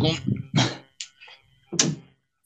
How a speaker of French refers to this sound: Et en fait, euh, attends, je crois qu'il y a mon chat qui essaie d'agresser ma porte.